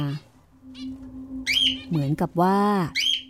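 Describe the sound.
A barn owl's shrill, drawn-out screech sounds in a few loud bursts, the longest near the end, after a brief spoken phrase and over a faint steady hum.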